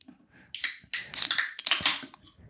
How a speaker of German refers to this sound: bevor wir anfangen, starten wir die neue Folge und machen unseren Mate auf, oder?